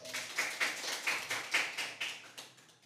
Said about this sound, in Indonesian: Tepuk tangan semuanya.